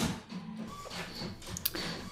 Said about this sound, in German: Das ist unser Drucker. Der druckt.